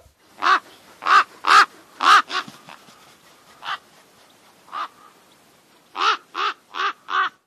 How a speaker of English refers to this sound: Oh my God. What was that sound? Ah, ravens. Ah.